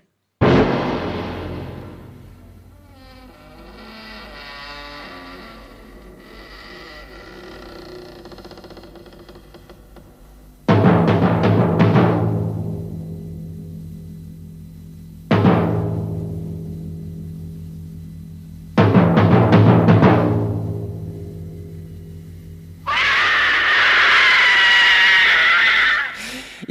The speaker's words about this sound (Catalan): és que és molt bo, això, aquest crit. Sí. A, a més, no, no, aquesta sintonia no els vam trencar massa el cap. Vull dir no. que uns crits, uns timbals i fora.